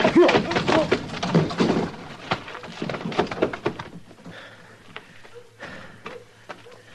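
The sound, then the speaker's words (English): A flurry of heavy thumps and scuffling as a drunk man holding a gun is punched and knocked down, like a blow landing and a body falling, then quieter shuffling and a few soft knocks as things settle. “Did you knock him out? Well, I hit him hard enough.”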